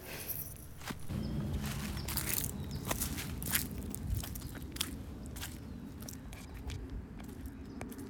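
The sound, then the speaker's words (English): Steady footsteps crunch through dry leaves, each step a crisp, crackling rustle repeating at a walking pace, with no one talking. “And so I tried to hunt for some leaves to get some good sound clips, and I was very excited.”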